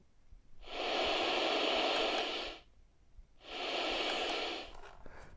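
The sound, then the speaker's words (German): Two steady bursts of hissing static from a built-in radio that receives no stations in the house, turned up louder, each lasting about two seconds and separated by a short near-silent gap, fairly loud and with no voices. “Machen wir lauter, wir hören nur Rauschen.”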